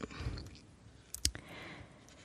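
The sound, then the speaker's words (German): Quiet rustling of paper pages being leafed through, with a sharper crisp flick in the middle as a page turns, with no talking, as someone leafs through to find Article 35 of the GDPR. “Und ähm, zum anderen in äh, Artikel 35, warte, jetzt muss ich gerade kurz blättern.”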